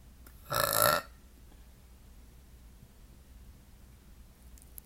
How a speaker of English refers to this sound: I had, hang on, I got a burp.